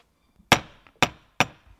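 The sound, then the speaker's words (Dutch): A large heavy door knocker strikes the door of the Menkenmaborg in Uithuizen, Groningen, Netherlands, three times, each blow loud and sharp with a short resonant decay, spaced about half a second apart. “Grote klopper op de deur, zou ik die even doen voor de, voor de grap.”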